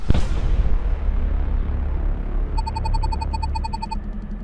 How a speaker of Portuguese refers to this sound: A NASA confirmou que um meteoro de meia tonelada caiu no sul do Texas, nos Estados Unidos. Câmeras registraram o som e o rápido tremor causado pela explosão.